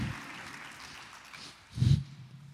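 An audience applauds for God, a steady wash of many hands clapping at a fairly soft level, with a short, louder low thump swelling near the end.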